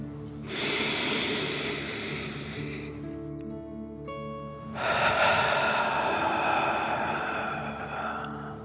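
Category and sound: human body sound, deep breaths in nose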